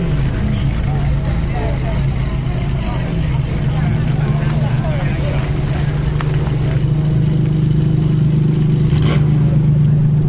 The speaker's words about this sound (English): Can you hear that sound? Remember those Ferraris that were parked in the supercar display earlier on? Well, there's now a supercar cruise going by. And if you'd like to hear the sound of a 308 GTB followed by an Enzo, here it is.